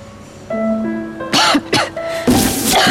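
A woman coughs in a few harsh bursts, two short ones followed by a longer, rougher fit, coughing up blood, over a soft sustained musical tone in the background.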